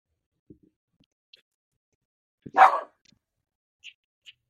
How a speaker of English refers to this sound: Yes. Chester's, barking. Chester's barking.